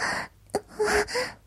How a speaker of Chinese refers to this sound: 表妹面带痛苦的大力喘息道